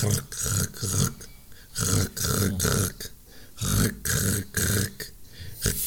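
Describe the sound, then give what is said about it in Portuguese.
A voice imitates a dreaming dog scraping its paws against a wall at night: a fairly loud series of about eight rough, raspy bursts in a quick, uneven rhythm, with no words spoken. “A minha cadela a sonhar raspava com as patas na parede Uau.”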